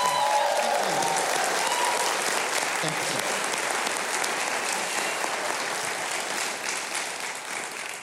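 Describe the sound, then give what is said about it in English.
Loud, sustained applause from a crowd for the music on the show Music City Connection, dense hand clapping filling the whole stretch with steady energy, tapering slightly near the end. “By the way, I think it's always appropriate for us to do a little uh, hand clap, and I mean not a golf clap, but a really good one for the best music in America right here on the show”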